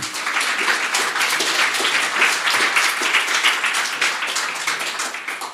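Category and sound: crowd, festival audience applause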